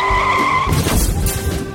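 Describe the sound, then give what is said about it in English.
A loud, high-pitched tire screech from a skidding car lasts under a second, then breaks into a rough, noisy rumble as the vehicle slides, with no talking. “Uh, I think we just lost another clown car.”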